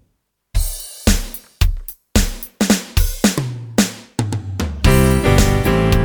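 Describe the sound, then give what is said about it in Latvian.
A song begins after a brief silence: a series of loud, evenly spaced struck chords ring out and decay, then the music swells into a full, sustained instrumental passage. No one is talking. “un lai pārdomātu evaņģēlīju, lai skan dziesma.”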